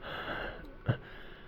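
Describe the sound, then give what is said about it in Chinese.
A voice imitates the ragged gasp of a dying researcher with blood coming from his mouth and nose: soft, hoarse breathing that ends in one short, sharp intake of air, all fairly quiet, with no words spoken. “那位研究员口鼻窜血，已经气若游丝，喘息着说道”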